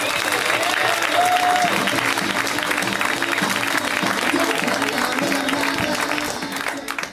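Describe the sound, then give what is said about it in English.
An audience at a comedy show bursts into steady, dense applause as the final comic of the night, Megan Gailey, is introduced: a sustained wash of clapping that holds at full strength for several seconds before tapering slightly at the end, with a few cheers mixed in. “Let's hear it right now from Megan Gailey.”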